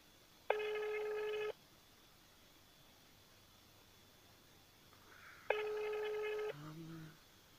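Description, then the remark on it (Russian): An outgoing phone call rings with no answer: two buzzy electronic ringback tones, each about a second long, separated by a long pause of silence over faint hiss. “Они, они звонят.”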